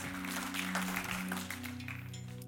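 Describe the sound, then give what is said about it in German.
Steady applause from a crowd at a worship event as a guest comes onto the stage. It is a dense crackle of many hands clapping at an even loudness, with a low sustained musical hum underneath throughout. “Und vielleicht hast du jetzt noch, während dem Gespräch plötzlich kommt mir immer noch mal einen Applaus.”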